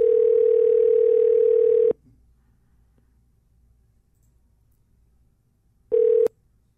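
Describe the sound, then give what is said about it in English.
A loud, steady telephone dial tone hums for about two seconds, cuts off into near silence, then a short matching tone blips briefly near the end. No one speaks. “I'm going to watch football, so I'm taking fucking 10 more minutes of fucking phone calls.”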